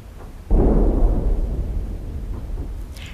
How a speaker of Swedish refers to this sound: det här var ju ett konstgjort ljud som man inte ska höra, ett kanonskott, så det, det var säkert ett sånt där dovt moller